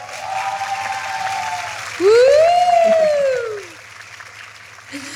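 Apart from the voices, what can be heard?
applause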